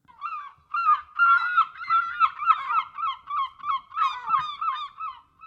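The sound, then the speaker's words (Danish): Seagulls call loudly, a flock of overlapping harsh squawks and cries running continuously with no one speaking. “Her kommer mågerne.”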